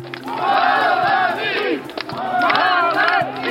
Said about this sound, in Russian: Строй военных прошел по центру Симферополя мимо здания парламента республики. Горожане сопроводили их криками «Молодцы!».